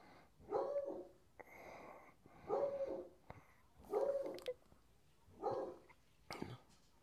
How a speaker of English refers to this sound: Oh, I hear the dog but I don't hear Les Nessman.